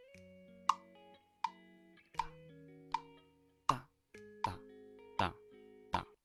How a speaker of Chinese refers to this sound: 可能现在你已经准备好一个机械节拍器或者是一个电子节拍器都可以，你调到四分之四拍子，然后呢，速度我们给它定在一个相对折中的一个值。比如说，我现在把这个速度呢调成大概八十，八十的速度，然后我们听一下。